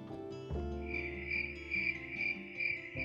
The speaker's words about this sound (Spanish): Solo el cri-cri de montones de grillos rompía la placidez del lugar.